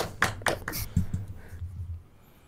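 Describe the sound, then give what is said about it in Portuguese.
A handful of sharp, irregular hand claps ring out in the first second, then fade into a low steady hum with a few softer taps. No one speaks. “Vamos pra 1800, vamos Palmas pra 1800.”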